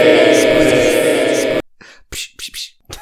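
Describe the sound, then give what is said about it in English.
A loud sustained burst of tonal sound cuts off abruptly, followed by several short, breathy, hissing bursts from a voice imitating the scrape and swish of knives. “That was the sound of knives.”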